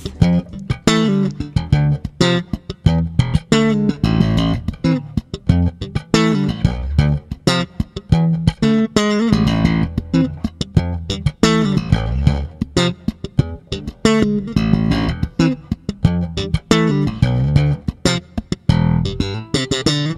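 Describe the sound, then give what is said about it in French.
An electric bass, the player's own, plays a busy, rhythmic line live in a radio studio session recorded in 2018, with punchy plucked attacks and deep, resonant low notes, loud, continuing steadily throughout with no voices. “Il était venu présenter son dernier album, …, dans le studio de TSF Jazz et il avait joué avec sa fidèle basse.”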